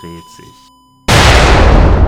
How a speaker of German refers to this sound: Ein Knall, eine Explosion. Flammen blitzen auf.